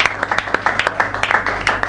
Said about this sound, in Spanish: Un aplauso, ¿eh? Aplauso.